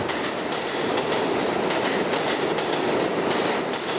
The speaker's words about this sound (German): Die Subway, sie riecht und klingt sehr speziell nach New York eben. Das ist die größte in den gesamten USA. 1,7 Milliarden Fahrgäste.